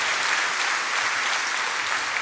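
People clap together in applause offered to the Lord during a sermon, a dense, steady wash of applause that holds at a fairly loud level for a couple of seconds without any voices breaking through.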